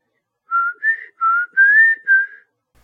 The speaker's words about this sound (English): We turn the spirit box on, we start to ask questions, and during this time, we start to hear whistling. As the channels continuously sweep, we hear a low whistling.